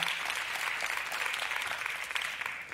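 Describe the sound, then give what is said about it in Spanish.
An audience gives a strong round of applause to the Lord, clapping steadily and enthusiastically. It is a dense, continuous patter of many hands that holds at an even, fairly loud level throughout, with no voices standing out. “Dale un fuerte aplauso al Señor.”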